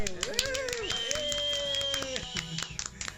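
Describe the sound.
Scattered applause welcoming two guests onto a show, with quick, irregular claps, mixed with voices whooping and cheering over it, loud for a few seconds.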